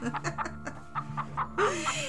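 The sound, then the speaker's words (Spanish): A voice imitates hens clucking: a quick, rhythmic run of short clucks, ending in a higher, drawn-out squawk. It is moderately loud. “¿Y qué crees que le contestaron las gallinas?”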